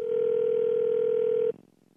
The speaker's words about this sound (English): It's definitely a phone.